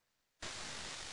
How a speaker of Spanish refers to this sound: Se escuchó ruido de bolsa